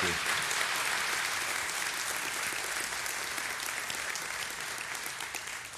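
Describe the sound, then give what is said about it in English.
An audience claps steadily for about six seconds for guests who run a ministry in the middle of the jungle. Many hands make a dense, even wash that stays loud throughout and tapers only slightly near the end. “another big hand?”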